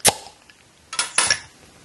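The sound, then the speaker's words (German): A beer bottle is opened to be poured: a sharp, bright pop of the cap, then a brief pause and two short bursts of fizzing hiss as the gas escapes. No one speaks. “Aber äh, lange Rede, kurzer Sinn, lass uns das Bier jetzt noch mal bitte aufmachen und einschenken”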